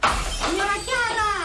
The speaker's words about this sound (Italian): è caduta la lampadaria!